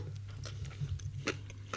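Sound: chewing food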